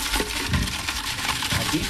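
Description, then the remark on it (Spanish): A hand rummages through an urn of paper slips for a raffle draw, giving continuous rustling and crinkling with small irregular shuffles, steady and fairly loud, with no voices. “Aquí, hay papeles. sí, sí, hay una urna.”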